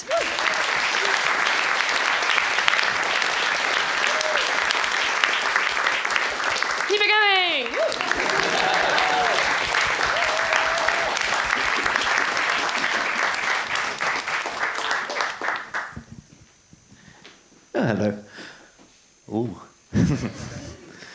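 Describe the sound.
Sustained audience applause, a dense crackle of many hands clapping loudly for about fifteen seconds, with a brief cheer or whoop partway through, then thinning out and fading to scattered claps and voices.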